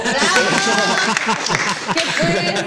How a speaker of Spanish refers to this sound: ¡Aplauda público!